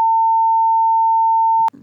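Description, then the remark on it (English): A steady, loud censor beep holds one mid-high pitch for over a second and a half, then cuts off sharply as a brief murmur of voice comes through. “Can you, um, can you beep that out?”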